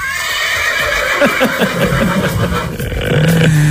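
A loud horse whinny: a shrill, quavering neigh that trembles downward in rapid pulses, ending in a lower snorting tail. No one speaks.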